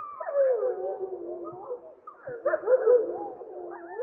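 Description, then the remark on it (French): A wolf pack howls in a sustained chorus, with overlapping, wavering voices and shrill, higher yips and whines from pups rising above the deeper adult howls; no one speaks. “une meute avec des louveteaux qu'on peut entendre qui sont beaucoup plus aigus.”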